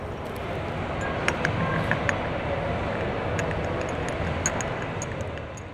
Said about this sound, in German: Ja, liebe Hörerinnen und liebe Hörer, nach diesem kleinen akustischen Messerundgang melden wir uns mit dieser Folge wieder direkt von der EICMA, der Motorradmesse in Mailand.